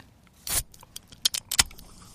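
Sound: beer can being opened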